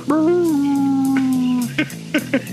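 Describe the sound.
A person howls like a wolf in one long, loud, sustained wavering note lasting over a second, followed by a few short voiced sounds and breaths.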